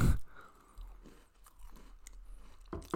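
Crunchy digestive biscuits being chewed, with repeated crisp bites and crackling bursts spread over a few seconds, fairly quiet with a low steady background hum and no talking.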